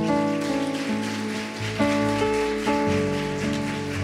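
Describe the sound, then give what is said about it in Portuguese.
Steady crowd applause for the Lord, a dense hiss of many hands clapping together, runs under sustained keyboard chords that shift a few times; no one speaks. “Aplauda o Senhor.”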